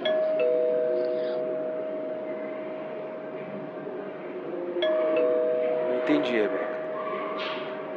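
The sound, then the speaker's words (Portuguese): A doorbell heard during a phone call rings with a sustained electronic tone, sounding twice in succession over steady background hiss, with faint rustling and a brief voice-like sound near the end. “Depois que eu vi sua ligação e prestei atenção na campainha, eu vi uma diferença.”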